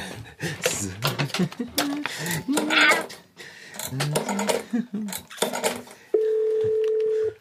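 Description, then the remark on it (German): A telephone is dialed with a run of quick clicks and beeps mixed with voices and handling noise, then a steady, loud electronic tone holds for about a second. “Okay, ich bin schon unterwegs zum Telefon.”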